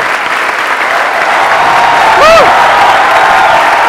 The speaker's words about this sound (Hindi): so big round of applause for everybody sitting ये big applause है big applause very nice